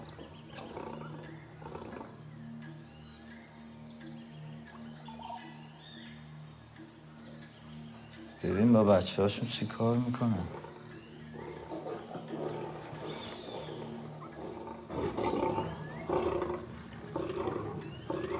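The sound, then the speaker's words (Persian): A lion lets out one loud, deep, throaty roar lasting a couple of seconds, set against a steady background hum with crickets; people speak briefly and quietly around it. “نگاه کن شیرا نزدیک دیدیم”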